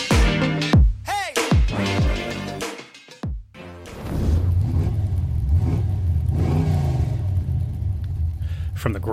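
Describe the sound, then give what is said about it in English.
A car engine in the racing game Hot Wheels Unleashed revs hard several times, its pitch sweeping up and down in quick bursts, then settles into a steady, loud rumbling growl. “growl of the engine to the detail of the tracks, Hot Wheels Unleashed is weirdly deceptive, but in a good way.”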